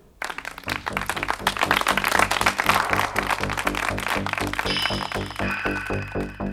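Audience applause, a dense, steady wash of many hands clapping that starts abruptly and holds throughout, layered over a rhythmic, pulsing tonal backdrop with bright high tones entering near the end.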